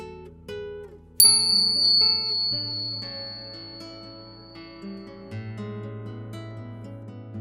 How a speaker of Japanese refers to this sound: リラックスできる鐘の音を聞いていただいてからスタートです。